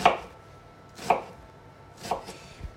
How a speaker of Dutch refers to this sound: Zo fijne kubusjes mee snijden. Hup. dus ik snij eerst in de lengte, maar dat je niet tot op het einde komt. Dus dat ze gewoon blijven staan.